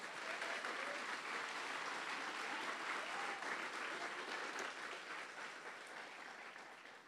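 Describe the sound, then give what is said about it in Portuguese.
A church audience applauds the Lord steadily, a dense wash of many hands clapping at a sustained loud level for several seconds before easing slightly toward the end. “Pode aplaudir ao Senhor bem forte.”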